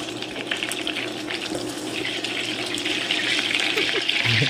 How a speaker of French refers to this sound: Non, c'est le beurre qui crépite dans une poêle. Ah c'est un bruit que j'adore, une odeur aussi que j'adore.